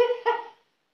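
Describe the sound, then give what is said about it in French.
The speaker's mobile phone gives a short ringtone: two quick, bright electronic notes in a row, clear, fading out after about half a second with no one talking. “Ah, ça, c'est mon téléphone, par contre.”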